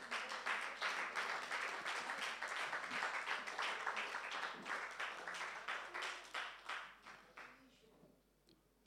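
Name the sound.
audience applause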